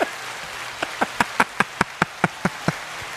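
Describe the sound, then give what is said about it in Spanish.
About ten sharp, crisp hand claps in a steady rhythm that quickens slightly, played as a short applause effect over a faint hissing background, with no talking. “Tú tienes un aplauso ahí. Sí, yo los tengo aquí.”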